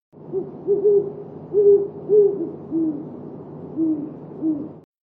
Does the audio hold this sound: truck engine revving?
no